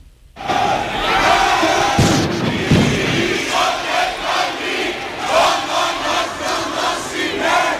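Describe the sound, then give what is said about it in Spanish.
A crowd of dozens of protesters gathered at night outside the railway operator shouts and chants together in loud, rhythmic bursts, with a couple of dull thuds early on amid the steady roar of voices. “Decenas de personas se concentraron anoche ante el operador ferroviario.”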